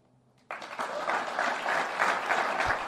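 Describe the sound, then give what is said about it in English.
After a brief quiet moment, a crowd at a University of Texas press conference bursts into loud, sustained applause, a standing ovation for Rodney Terry as he is introduced as head basketball coach, with dense clapping that swells and keeps going to the end and a few faint voices mixed in. “There'll be some questions now in the press conference Face First of all, a standing ovation for him.”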